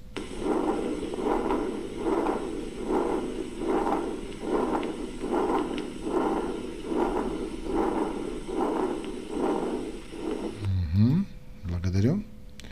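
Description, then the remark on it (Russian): A continuous machinery-like heart murmur of a patent ductus arteriosus, a steady rumbling whoosh that swells with each beat in a regular rhythm, fairly loud, cut off near the end by a brief different sound. “Вот это так называемый машинный шум, да, шум при открытом артериальном протоке.”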